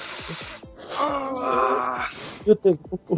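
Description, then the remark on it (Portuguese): A voice imitates a long, pained wailing moan, rising and wavering for about two seconds before breaking into short gasping groans. Loud, with no other sounds around it. “que nem o Peter Griffin, ele tava com a mão no joelho”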